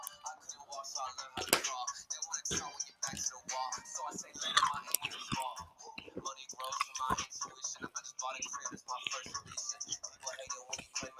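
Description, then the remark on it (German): Someone chews gum with wet, smacking mouth sounds and sharp little clicks in an irregular, steady stream, with a hissy, breathy quality throughout. “Ich gönne mir Kaugummi.”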